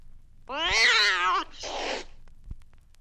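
A single loud cat meow, drawn out for about a second, followed right away by a shorter raspy, breathy yowl, then a faint tap in otherwise quiet surroundings.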